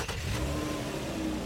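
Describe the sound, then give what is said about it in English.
A car engine revs loudly, a low, steady roar with a rising mechanical hum that holds for about a second and a half, with no voices. “Before you turn a key, step on the gas and let it rip.”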